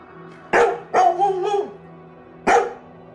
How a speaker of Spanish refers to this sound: un formidable labrador que me había seguido a través de mis peregrinaciones por el norte y del cual no había querido desprenderme, empezó a ladrar violentamente